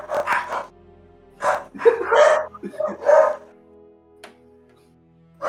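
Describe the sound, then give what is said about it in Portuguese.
A dog barks several times in short, loud bursts with harsh yelping tones, then falls quiet except for a faint sound near the end. “É, é filha da puta que late quando você tá falando.”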